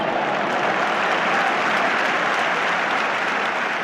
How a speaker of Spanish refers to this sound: Al parecer es recibido con atronadores aplausos.